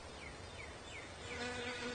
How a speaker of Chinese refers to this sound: 不像，它们是蜜蜂。